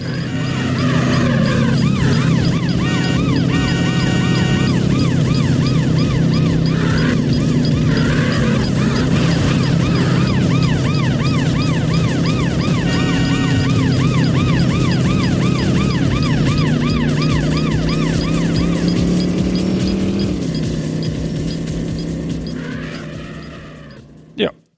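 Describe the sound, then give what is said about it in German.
In a racing video game, a luxury sports car's engine roars continuously while wailing police sirens sweep up and down behind it, loud and sustained throughout, with the engine note shifting as it accelerates near the end. “Du setzt dich in diesen Luxussportwagen, du drückst das Gaspedal durch, du rast durch eine realistische Landschaft, die Polizei im Nacken und ein Konkurrent an deiner Seite und dann guckt er, wer sich am besten durch den Verkehr schlägt.”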